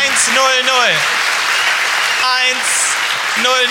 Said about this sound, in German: Ein Applaus.